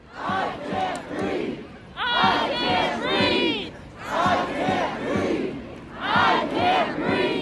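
A large crowd shouts and roars together outdoors, loud bursts of massed yelling rising and falling in waves with no pause, voices overlapping into a dense, chanting din.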